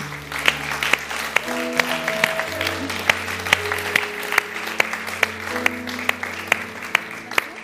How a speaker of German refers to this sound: Lass uns erstmal den Leuten Applaus geben, die sich entschieden haben.